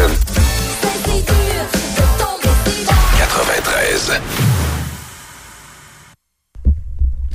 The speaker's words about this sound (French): Oh, Un beau lien ici. C'est une bonne toune, celle-là. Ah, c'est très bon.